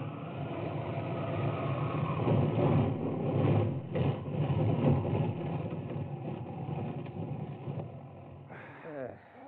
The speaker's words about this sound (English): Finally, the motor sputters for the last time, and you guide the plane almost noiselessly to a landing on the desert floor.